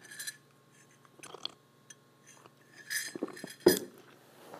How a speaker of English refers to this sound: Let me take a sip of tea.